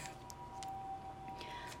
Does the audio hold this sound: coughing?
no